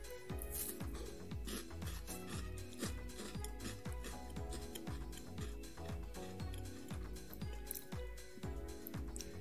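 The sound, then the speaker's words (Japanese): Steady chewing of a crunchy Tim Tam chocolate biscuit with a red raspberry filling inside, with wet, crackly bites repeating in an even rhythm for several seconds and no talking. “咀嚼音”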